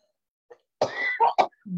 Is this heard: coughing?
yes